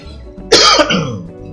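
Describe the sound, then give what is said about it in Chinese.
A single harsh, raspy cough that slides into a gravelly throat clearing, loud and abrupt, then trails off into a rough, lower rumble with no talking. “那大家包涵一下，呃，有时候还是会想咳，想咳嗽。”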